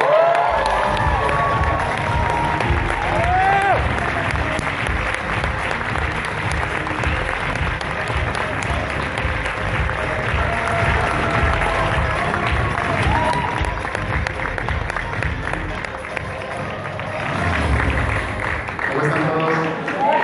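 Loud, sustained applause from a large audience welcoming a speaker being introduced on stage: dense steady clapping with cheers and shouts rising above it, continuing for about twenty seconds and swelling again near the end.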